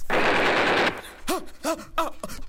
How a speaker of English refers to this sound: Oh no, I think I hear gunshots